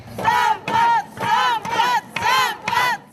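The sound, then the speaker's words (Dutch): A group of women, sex workers protesting at the city hall, shout in unison at Mayor Wolfsen as he comes outside, chanting loudly in six rhythmic bursts with short pauses between, forceful like a protest chant. “En als Wolfsen naar buiten komt, laten de prostituees horen dat het menens is.”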